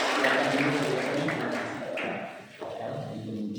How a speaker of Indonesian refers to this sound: Tepuk tangan buat Tuhan Yesus.